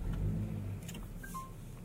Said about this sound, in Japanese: エンジンをかけました。